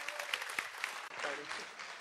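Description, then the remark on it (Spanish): An audience applauds to welcome Father Monseñor Wilfredo Peña, host of the EWTN program El Mundo Gira: dense, steady clapping that stays fairly loud for about two seconds, with a faint vocal cheer or call rising briefly partway through. “Él es conductor del programa de EWTN, El Mundo Gira, y quiero que recibamos con un calurosísimo aplauso al Padre, Monseñor Wilfredo Peña.”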